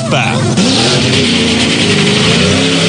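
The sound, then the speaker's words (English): A loud race car engine roars and revs, its pitch climbing sharply early on, then holding a steady high-powered whine for the rest of the few seconds. “Start your engines.”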